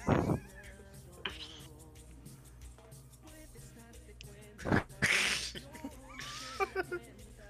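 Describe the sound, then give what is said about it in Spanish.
A sneeze bursts out sharply, followed a moment later by another loud sneeze with a breathy rush, over a low background hum and faint voices. “Salud digna, ¿estás bien? ¿Tienes COVID?”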